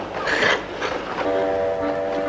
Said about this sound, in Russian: Ох, поезд-то как чешет. Ох, чешет, чешет.